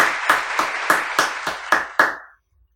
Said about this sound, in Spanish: Un aplauso para Freddy.